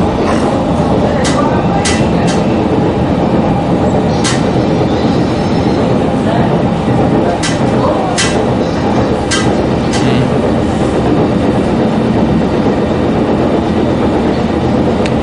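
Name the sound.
S-Bahn commuter train riding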